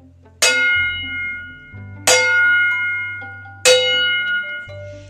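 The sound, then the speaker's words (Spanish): Village bells ring out in the distance in three slow, evenly spaced strikes, each tone lingering and fading before the next, over a steady low hum with no voices. “A lo lejos, oía las campanas de un pueblo.”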